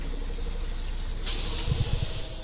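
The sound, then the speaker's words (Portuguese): A city bus in Barreiro at 6 a.m. idles with a low engine rumble, then its air brakes release in a sudden sharp hiss that lingers as it pulls away with its doors open, with a few heavy low thumps underneath. “Primeiro o autocarro, que arranca de portas abertas.”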